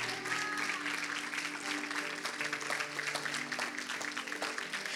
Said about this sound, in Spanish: Vamos, denle un aplauso fuerte, fuerte, fuerte al Señor.